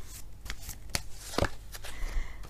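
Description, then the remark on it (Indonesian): Tarot cards being shuffled, a quick run of crisp papery riffles and flicks with a couple of sharper snaps, fairly quiet, no talking. “Pasti banyak nih yang amin akhirnya madam dapat kartu bagus buat percintaan.”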